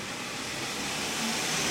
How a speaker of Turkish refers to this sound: Ne çok araba geçti arkadaş ya.